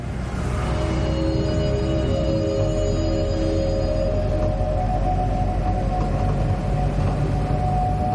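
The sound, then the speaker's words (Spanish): Inside a moving bus: a steady, loud engine drone with deep rumble and a few sustained whining tones, continuous throughout with no voices. “Viaja en un autobús.”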